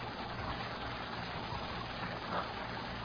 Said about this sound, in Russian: Движение машины